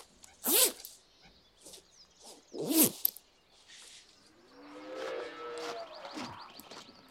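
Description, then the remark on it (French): A farmer pulls on work overalls at his farm, with two sharp zipper rasps a couple of seconds apart amid clothing rustle, followed by quieter outdoor ambience with faint tonal chirps. “Alors, je vais juste mettre une cote”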